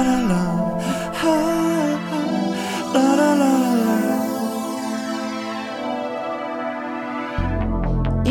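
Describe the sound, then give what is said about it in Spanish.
A song's instrumental opening plays loud and steady, layered harmonic tones and bright sustained notes with a pulsing low end, shifting to a heavier bass entry near the end. “Ah, perfecto, pues entonces vamos con música.”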